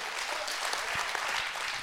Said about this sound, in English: Come on, clap your hands.